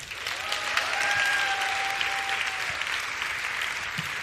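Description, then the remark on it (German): Sustained audience applause as a guest comes up, a dense steady patter of many hands clapping at even loudness throughout, with a faint high whistle-like tone briefly threading through early on. “Ihr nicht müsst haben. klatschen, bis er oben ist.”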